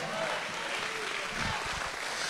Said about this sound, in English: Give him a hand clap if you believe his word today.